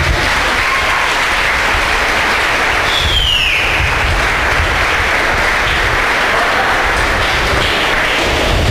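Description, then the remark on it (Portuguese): An audience breaks into sustained, loud applause to God during a church service, a dense wash of clapping that stays steady throughout with no voices standing out, plus a brief rising whistle-like tone partway through. “Pode aplaudir a Deus por isso.”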